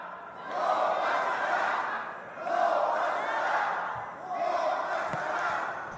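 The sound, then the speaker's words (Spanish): A large crowd chants the slogan "No pasará" in unison at the start of a session in the Chamber of Deputies, three loud rhythmic shouted phrases repeating about every two seconds with short dips between them. “Y la sesión en la Cámara de Diputados inició muy coordinadita al grito de no pasará.”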